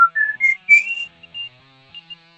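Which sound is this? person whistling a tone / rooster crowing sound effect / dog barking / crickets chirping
person whistling a tone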